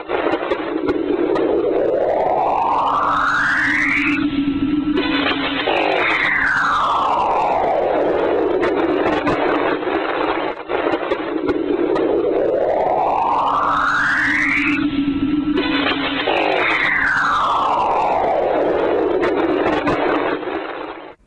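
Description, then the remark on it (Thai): Sonified Cassini spacecraft magnetometer data of ion cyclotron waves tied to the magnetic fields of Saturn's moon Enceladus and Saturn: eerie electronic whooshing tones that glide steadily upward, then sweep back down over a loud, hissy drone. The cycle plays twice, with no voices. “มันเรียกว่าไอออนไซโครตอนเวฟนะครับซึ่งเป็นปรากฏการณ์ที่เกี่ยวข้องกับสนามแม่เหล็กของดวงจันทร์ของเอ็นเซเลดัสนะครับแล้วก็ดาวเสาร์เป็นปรากฏการณ์ที่ตัวอุปกรณ์แมกเนโตมิเตอร์ของยานแคสซินีสามารถตรวจจับได้ครับ ผมชอบอันนี้นะ ฟังอีกรอบนะ เปิดให้ฟังอีกรอบครับ”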